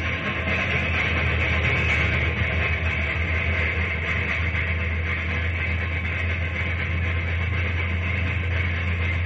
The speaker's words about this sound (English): Well, why don't you give it more gas? We'll never make it up this grade if you don't. Well, as long as you keep throwing coal in the firebox and we keep getting steam, we won't have a bit of trouble getting up this grade.